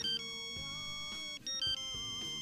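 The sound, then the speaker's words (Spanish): A mobile phone ringtone plays a bright, synthetic melody of sustained electronic tones that shift pitch in steps, heard clearly with no voices. “Ha sonado un teléfono celular.”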